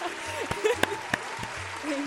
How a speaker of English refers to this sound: Oh, no, no, another round of applause. Come, come on, you guys.